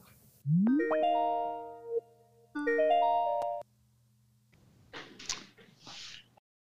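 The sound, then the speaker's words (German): An outgoing Skype call ringing tone sounds twice, each burst a bright electronic melodic chirp lasting about a second, followed by a short stretch of muffled, noisy crackle. “Wir laden zu einer Skype-Session ein. Ja, ich freue mich auf das Gespräch. Also, läuten wir ihr doch gerade an.”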